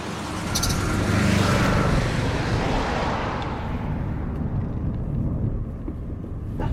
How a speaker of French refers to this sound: il y a une voiture, il y a une voiture.